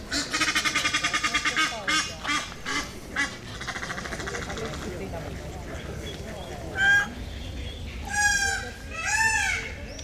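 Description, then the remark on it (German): A Canada or Egyptian goose honks loudly: a rapid run of nasal calls at first, then a few longer, drawn-out honks after a pause, over steady outdoor background noise. “ist aber auch eine nur von diesen schrecklichen äh, Kanada- oder Nilgänsen. Die sind nämlich auch ziemlich laut und die haben hier eigentlich nichts zu suchen.”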